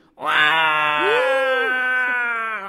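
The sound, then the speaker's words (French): A single long, loud human cry held steady for over two seconds, strained and harmonically rich, with a slight rise and fall in pitch partway through. “Pousser un long cri.”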